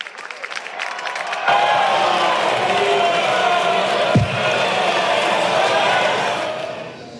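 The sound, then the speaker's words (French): A loud, sustained roar of many parliament deputies, from the majority, the Rassemblement national and the Republicans, shouting and jeering at once after a deputy's speech, with scattered raised voices and a brief thump partway through, continuing steadily before fading slightly at the end. “Vous avez entendu les hurlements des députés euh, de la majorité et du Rassemblement national et des républicains qui ont suivi cette intervention très vite.”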